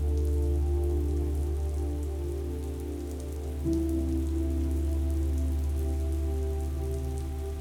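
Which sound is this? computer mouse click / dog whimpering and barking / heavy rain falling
heavy rain falling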